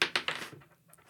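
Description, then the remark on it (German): Dice rolling across a hard surface: three sharp clattering impacts in quick succession, followed by softer tumbling rattles that fade out, with a faint final tick. “hast du würfeln? Ja, sehr gerne.”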